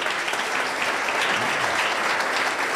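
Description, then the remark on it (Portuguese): A crowd claps steadily for Jesus, a dense, even wash of applause that holds at a constant loud level for the whole few seconds without breaks or cheers. “Pode aplaudir Jesus aí, não é sobre.”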